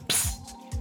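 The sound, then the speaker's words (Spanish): A sharp hiss of escaping gas bursts out at once, followed by a couple of softer fizzing puffs, fairly loud, as a beer is opened. “fue que destapé mi cerveza, ustedes disculpen”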